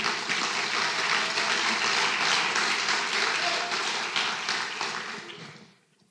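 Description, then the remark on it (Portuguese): A church audience applauds Jesus together in a steady, dense wash of clapping that holds for several seconds, then tapers off and fades to quiet near the end. “O Espírito pode aplaudir Jesus.”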